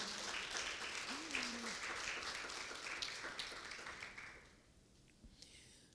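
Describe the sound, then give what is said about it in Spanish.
An audience breaks into dense, sustained applause for the Lord for about four seconds, with a brief vocal cry rising over the clapping, before it quickly fades to near quiet. “Le puede dar un aplauso al Señor.”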